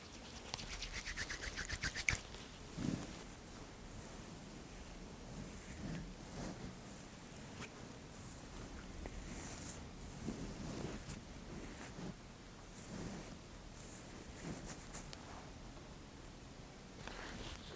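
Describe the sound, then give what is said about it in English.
Brushing sounds, a steady scratchy swishing of bristles through a beard as conditioner is brushed in, repeated in short strokes with faint rustles and occasional soft taps, no talking. “just going to be brushing it in.”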